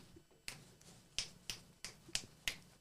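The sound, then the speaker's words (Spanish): Crisp finger snaps repeat at a steady beat, about seven in under three seconds, sharp against a quiet background with no talking, made from a booth up high in a theater to mark the tempo-rhythm for actresses below. “eso se escuchaba desde allá arriba, haciéndole yo hacia los dedos.”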